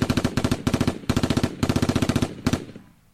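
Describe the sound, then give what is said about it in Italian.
Rapid bursts of machine gun fire, loud and sharp, in several rattling volleys of quick evenly spaced shots with brief pauses between, ending in a fading echo tail. “io ho appena ucciso due persone perché mi hanno detto che la benzina è arrivata a set”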